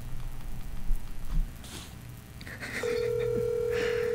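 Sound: phone call ringing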